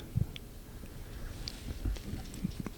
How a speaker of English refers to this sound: Listen, you hear that dog scratching? Mm-hmm. That thing got the fleas, man.